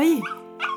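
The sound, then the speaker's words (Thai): A dog, brought along by a granddaughter visiting her grandmother, barks twice, fairly loud, with a short gap between the two tonal, slightly whiny barks. “เพราะสิ่งที่แชร์พามานั้นคือ หมา นั่นมันหมานี่”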